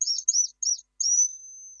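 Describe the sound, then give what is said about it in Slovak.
A mouse-squeak call lure called a myškovačka, used by a wildlife photographer to attract foxes, gives three quick, shrill squeaking bursts, then one longer drawn-out high squeal that fades at the end. No talking. “Napríklad táto myškovačka sa to volá”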